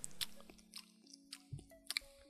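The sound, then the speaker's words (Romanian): A voice imitates loud open-mouth chewing with a mouthful of food, with wet lip smacks and squishy clicks in an uneven series, fairly loud, with no talking. “Și am o problemă foarte mare cu plescăitul sau clefăitul, cum îi spunem noi la Iași.”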